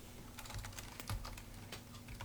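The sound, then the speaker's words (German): Rapid, uneven keystrokes clatter on a computer keyboard as someone types H-E-Y, an exclamation mark, a space and L-E-T for a speech-output demo, a quick run of crisp taps with small pauses between them and no voices. “könnte ich jetzt zum Beispiel schreiben. H-E-Y, Ausruf, Leerzeichen, L-E-T.”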